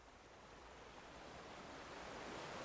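Steady, rushing ocean surf fills the whole stretch, a broad hiss of breaking waves with a slow swell in loudness toward the end, no voices present.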